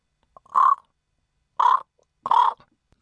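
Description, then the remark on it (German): A raven named Jakob gives three harsh, raspy caws, loud and clear, with short irregular pauses between them and no voices around. “Genau, Jakob, der Rabe.”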